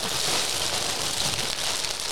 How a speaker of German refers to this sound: Jetzt knistert es doch natürlich fies hier. Ich pack's nicht aus, damit es so bleibt. An deiner Schule kannst du jetzt richtig was hermachen mit dem MJ Jersey.